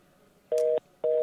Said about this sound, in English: I haven't heard a ringtone like that in a while either.